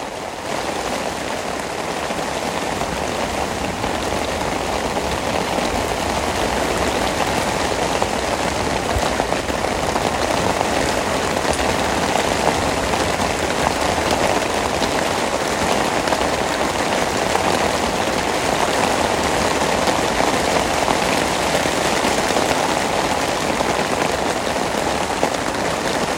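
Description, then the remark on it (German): Heavy thunderstorm rain while camping pours down steadily, a dense, unbroken hiss and patter that holds at the same loud level for the whole stretch, with no voices. “Ich wollte euch nur einen kurzen Eindruck davon geben, wie Gewitter beim Campen so klingen kann.”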